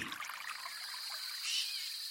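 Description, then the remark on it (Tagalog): Flowing stream water trickles and bubbles steadily for a couple of seconds, a soft continuous babble heard on its own, with no voices. “Sinundan ko ang tunog ng umaagos na tubig hanggang sa marating ko ang malinaw na batis.”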